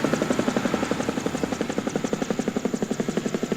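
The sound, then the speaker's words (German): A tarpaulin-covered truck from Istanbul, Turkey, drives across a parking lot into its farthest corner with a heavy, steady rumble and a rapid, regular throbbing pulse that holds evenly throughout, with no voices. “Der Laster aus Istanbul. Er fährt in die hinterste Ecke vom Parkplatz.”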